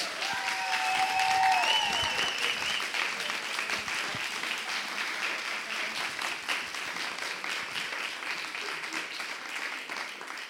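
A steady wash of audience applause for three school students from the Bremen district of Walle coming onto a stage, dense clapping that stays fairly loud throughout and thins only slightly toward the end, with a brief whistle-like tone near the start.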